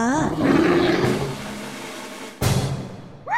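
A deep, rumbling roar from a large bear walking past swells loudly and then fades, followed by a sharp burst and another growl rising at the end.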